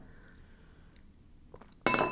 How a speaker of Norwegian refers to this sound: Oi, unnskyld meg. Jeg sa skål her. Det var bare vannglasset mitt. Skål til dere.